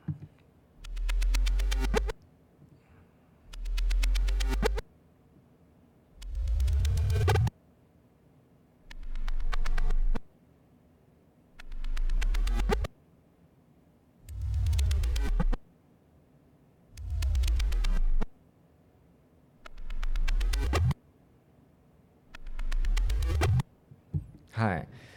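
A short reversed sound effect plays about ten times in a row, each loud burst separated by brief silence, its pitch transposed higher or lower from one repetition to the next with Ableton's transpose function, in patterns rising from low and falling from high.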